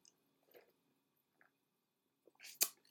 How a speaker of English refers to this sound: I'm going to sip some coffee because that feels like some tea to me.